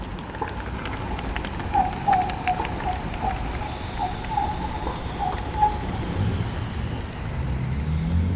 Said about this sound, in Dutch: en we lopen tegen de klok in over het Hofplein, over de zebrapaden, langs de trams en de auto's en de fietsers om ons heen. Met mijn opnameapparatuur en koptelefoon op kan ik extra goed horen dat het geluid verandert terwijl we lopen.